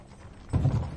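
Horses' hooves clip-clopping as mounted soldiers escort a carriage across a Roman bridge: after a quiet start, a cluster of low, muffled thudding steps rises abruptly halfway through and keeps going to the end, with no voices.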